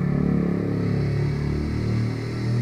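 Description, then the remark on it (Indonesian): A motorcycle engine drones steadily outside, a low rumbling hum that swells slightly and holds for a few seconds with no talking over it. “motor lewat dulu ya”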